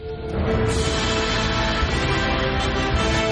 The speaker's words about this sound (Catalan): Eh, mira, et poso la música a veure si t'inspires, eh? Vale, vale. Perquè la banda sonora d'aquestes tres pel·lícules sona així.